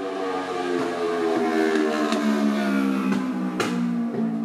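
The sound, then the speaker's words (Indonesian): A motorbike engine revs loudly, its steady buzzing whine holding high pitch as it speeds past, with sharp clicks and pops near the end and no talking. “gue gak ngerti loh sama orang-orang yang suka ngebut-ngebut kayak gitu kayak di, di dalam pikirannya apakah dia lagi balapan apa gimana sih sih ngebut sendirian gitu ngapain”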